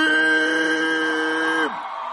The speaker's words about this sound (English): come on, clap your hands, give God the glory. Somebody scream